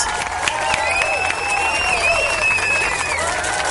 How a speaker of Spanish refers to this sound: un aplauso al que se equivocó. Gracias.